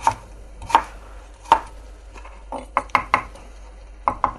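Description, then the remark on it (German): Sharp knife chops on a cutting board as carrots are cut into cubes, first a few spaced strikes, then quicker clusters of crisp, woody taps with brief pauses between. “Und tu die dann in Würfel schneiden, die Möhren.”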